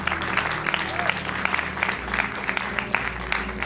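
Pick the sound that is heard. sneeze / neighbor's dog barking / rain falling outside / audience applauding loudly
audience applauding loudly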